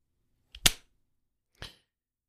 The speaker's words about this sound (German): Hast du geschnipst? Ich hab's nicht. Ich hab geschnipst. Nee, hat man nicht gehört.